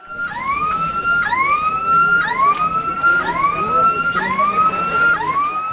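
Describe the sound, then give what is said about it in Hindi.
A fire engine siren blares loudly, its tone sweeping upward again and again about once a second over a steady wash of background street noise, at a student protest against a fee increase, where the fire brigade vehicle sprayed water on the students. “fire brigade की गाड़ी से इन पर पानी की बौछार छोड़ी गई”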